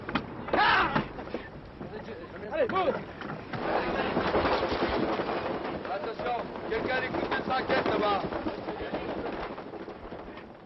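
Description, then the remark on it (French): A schooner rising into strong wind at the noon start of a sailing race, with steady gusty rushing and water noise throughout, and indistinct voices calling out now and then over the din. “Aussitôt, la goélette s'élève dans le vent.”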